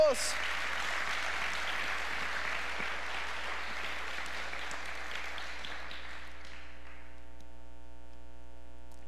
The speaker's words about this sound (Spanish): Me encanta que ese es el Dios de misericordia que tenemos y si alguien aquí está agradecido, ¿por qué no hace un fuerte aplauso a Dios?